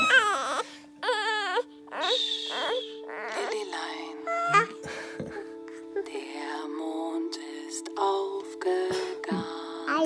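A baby wails in strained, wavering bursts, loud, while a steady electronic hum drones underneath and fussy cries and whimpers continue in fits and starts.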